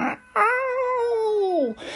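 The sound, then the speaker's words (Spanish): A single loud, drawn-out cat meow lasting over a second, its pitch sliding downward toward the end, with short bursts of noise just before and after. “Ay, nuevo intermedio para atender al gato, que no es porque el gato pida atención y yo lo atienda, atienda, sino que se pone a maullar fuerte y no es cuestión de que inconveniente esté al teléfono y se oiga.”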